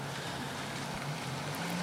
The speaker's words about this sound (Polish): Y, z lewej strony są garaże, z prawej się wyjeżdża. I, no i takie, to miejsce brzmi tak. I to, co mi teraz chodzi, to że wyjeżdża w tej chwili y, gdzieś tam z lewej strony samochód, przejeżdża przede mną, chowa się za tym murkiem